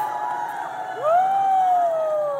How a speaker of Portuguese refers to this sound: Olha, com Fabiana Carla, e Matheus Solano, todo mundo aqui gritando.